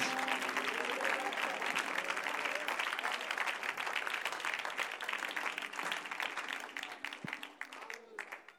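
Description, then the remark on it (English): A standing crowd claps their hands together for the Lord one evening as a preacher makes his way to the pulpit. The sustained, dense applause stays loud before gradually tapering off, with a voice faintly heard beneath the clapping. “And why don't we give the Lord a hand clap?”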